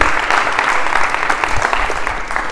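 A crowd claps steadily, a dense, continuous patter of many hands at an even, fairly loud level throughout, with no voices standing out.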